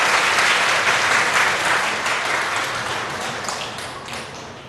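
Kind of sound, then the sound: crowd, audience applause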